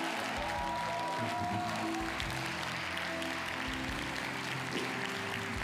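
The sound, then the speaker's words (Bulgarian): An audience applauds steadily for several seconds, a dense, continuous wash of many hands clapping at an even loudness with no clear pauses and no speech over it. “Извикай, го, Ръкопляска, ако вярвате.”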